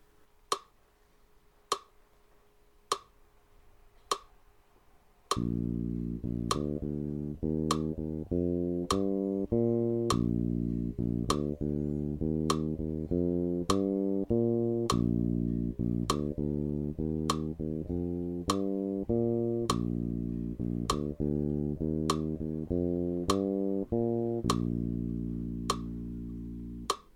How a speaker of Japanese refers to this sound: メトロム鳴らし方ですね今16部4つ鳴らしてたんですけど、まあ、今度は16部減らして普通に四分音符で弾いてみたいと思います